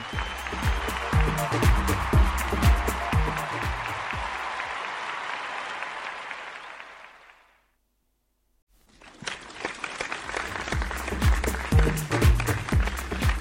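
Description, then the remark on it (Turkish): A big crowd bursts into loud, sustained applause and cheering over an underlying musical beat, fades out to a brief silence, then the clapping surges back in just as strongly. “Ben de sizlere kocaman alkış gönderiyorum.”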